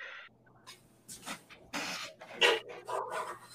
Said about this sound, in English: He probably had to go get them big ass dogs together.